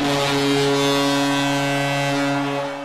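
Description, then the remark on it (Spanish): A hockey arena goal horn blares in one long, loud, steady blast with a deep droning tone, holding for about three seconds before tapering slightly at the end. “Y si estáis escuchando esta bocina es que ha llegado el momento de despedirnos de todos vosotros y de cerrar el programa de esta semana.”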